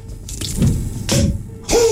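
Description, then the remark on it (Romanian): Water pours and splashes in a few short bursts, with a rising gurgling tone as a vessel seems to fill. No one speaks. “I-a dat părintelui apă. Da. Când, în mod normal, trebuie să se audă așa.”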